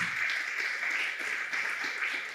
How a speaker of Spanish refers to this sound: No, si ese aplauso es para Dios, es muy poquito.